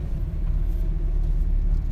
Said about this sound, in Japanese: 今日も収録は、えーと、車の中からの放送になるんですけども えっとね今日から僕のいるエキスポシティが営業再開しましたのでエキスポの今帰り道に収録中ということで